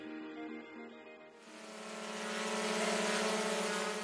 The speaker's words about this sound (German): So könnte der Paketdienst der Zukunft aussehen. Paket bestellt und zack macht sich eine unbemannte Drohne auf den Weg zur Auslieferung